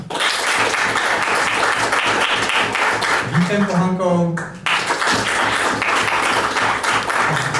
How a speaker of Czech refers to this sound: Prosím o potlesk.